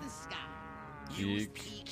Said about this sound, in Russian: Вот, кстати, корова наглядно демонстрирует нам свое отношение к хорошей графике Хала.